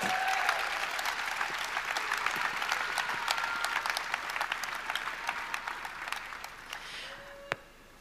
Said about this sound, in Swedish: Ska vi välkomna vår eh, vår vän. Vår vän, vår kompis. Vår talare för kvällen. En applåd tycker jag för Hans Wolfbrandt.